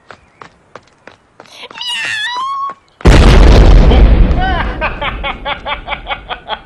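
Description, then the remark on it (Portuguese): A lit explosive goes off: a sudden, loud blast booms out with deep rumble and a long fading roar, preceded by sharp clicks and a high wavering cry, and followed by a run of short, rhythmic chirping pulses. “Vai levar ainda uns dois minutos pra explodir.”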